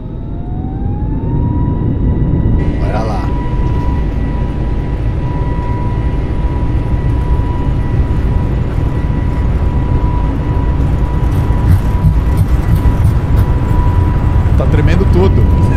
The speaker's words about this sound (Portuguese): aqui e levantar o som do áudio do, do do avião pra gente ouvir essa decolagem aí todo mundo então, junto, né? É agora, hein? Vamos lá.